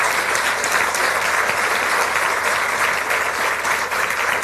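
Sustained applause from an audience for three guests, a dense, steady wash of many hands clapping at an even loudness throughout, with no voices breaking through.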